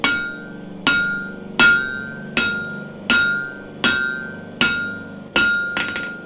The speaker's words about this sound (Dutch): Nou goed, dan ga je naar je, naar je aanbeeld toe. En eh, vanuit daar ga je, ga je smeden, hè? dus ga je kloppen op het staal.